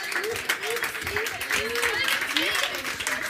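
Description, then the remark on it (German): A live audience claps steadily for a few seconds, the applause dense, with scattered whoops and cheering voices rising above it. “Klatscht mal, wenn ihr da.”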